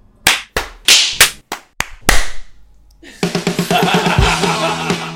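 About seven sharp hand claps ring out at an uneven pace, followed by a dense, rhythmic burst of tonal sound with quick pulses that carries on to the end.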